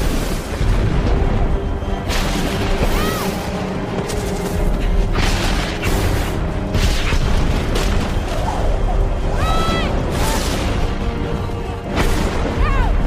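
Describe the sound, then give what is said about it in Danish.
Lightning strikes crack and boom over open fields during a thunderstorm, several loud explosive bursts in quick succession over a constant roaring rumble, with occasional faint whistling tones between the blasts. “det er jo meget specielt lynvær, hvor det bare slår ned i åben marker som små eksplosioner”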